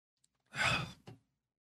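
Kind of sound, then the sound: food or drink, drinking water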